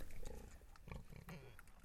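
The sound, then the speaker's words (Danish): Pigs of the Tobix Norsvin type grunting and snorting in a farm barn at Hesbjerggård, in a series of short, rough, low bursts over a steady background hum. “Hos Bertel og Marianne på Hesbjerggård har de næsten samme type gris, med en lidt anderledes udgave, der hedder Tobix Norsvin.”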